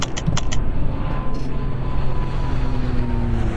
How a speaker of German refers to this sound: Und wie man jetzt vielleicht schon hört, es brummt deutlich anders. Wir haben also ein anderes Flugzeug.